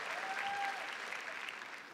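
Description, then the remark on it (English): A church audience applauds steadily for the full two seconds, a dense, even wash of many hands clapping with no pauses and no voices standing out, giving themselves a hand for coming to church. “Give yourself a hand clap for making the decision to be in God's house.”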